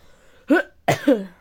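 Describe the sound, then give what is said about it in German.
Two or three abrupt coughs in quick succession, a single bark followed by a double burst, fairly loud against a quiet background with no talking. “Eieiei, ich bin ein bisschen am Husten, sorry.”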